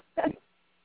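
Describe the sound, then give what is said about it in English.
A single brief, loud whooping yelp from a dog inside a house, lasting a fraction of a second before it falls quiet. No one speaks. The dogs in the house are two visiting Australian shepherds and a little dog named Che. “So if you start hearing whooping sounds, you'll know it's coming from the canines all around the house.”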